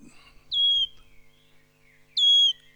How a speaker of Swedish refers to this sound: det här är då locklätet på grön sångare, lite lock, långdraget då.